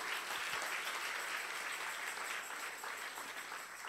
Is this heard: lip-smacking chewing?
no